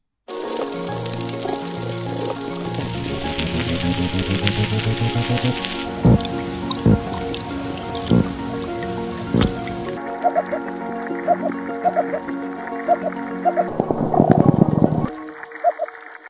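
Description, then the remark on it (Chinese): A sequence of underwater fish sounds: dense crackling and fizzing textures, low rumbling grunts and several sharp clicks and pops, shifting character every few seconds with no one speaking. “下面呢，就让我们来一起欣赏一下鱼发出的各种声音。”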